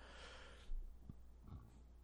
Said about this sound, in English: Excuse me. Edit that out. um, I don't want anyone on this podcast hearing me burp.